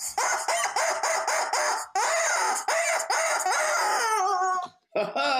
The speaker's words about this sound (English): and the rubber chicken says.